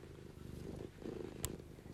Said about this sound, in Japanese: 朝からね、ゴロゴロ音とか聞いたら眠くなっちゃうよね。